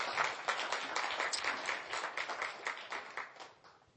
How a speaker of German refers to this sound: Übrigens an dieser Stelle einfach mal ein ganz herzliches Dankeschön ans ähm, Deko-Team hier, oder? Applaus